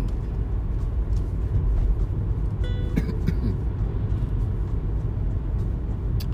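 A car drives along the road with a steady, heavy low rumble throughout, like road and engine noise heard from inside the vehicle, with a few brief clicks midway.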